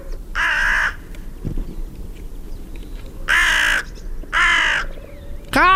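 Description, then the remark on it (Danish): A hooded or carrion crow caws three times, harsh drawn-out calls spaced unevenly over a quiet outdoor background, followed by the start of another call at the very end. “Hvordan siger en gråkrav? Vi har jo både en gråkrav og en sort krav. De siger ret ens, så her kommer.”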